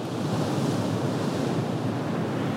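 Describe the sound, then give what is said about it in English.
Atlantic Ocean waves wash onto a beach at East Hampton in a steady, loud roar of surf, blending with a windy hiss and no distinct individual breakers or voices. “Much of it is set in the 18th century on the Atlantic Ocean, the same waters that crash on the shores of East Hampton, my hometown.”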